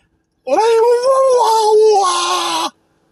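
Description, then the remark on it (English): A person's voice lets out a single sustained, wavering cry of about two seconds, a strained animal-like yowl imitating a tiger getting its paw in a boiling hot pot of water, loud. “That is the sound of a tiger turning off a boiling hot pot of water, and his paw got in it just a little bit, just enough to make the tiger go.”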